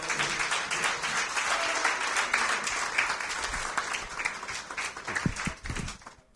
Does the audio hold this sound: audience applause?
yes